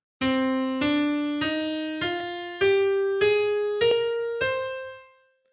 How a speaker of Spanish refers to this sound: esa es la escala, esas son las notas que son usadas en la música del exorcista